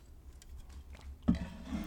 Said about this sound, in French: Je vais directement prendre une gorgée. Alors bougez pas.